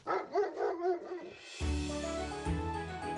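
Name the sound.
dog barking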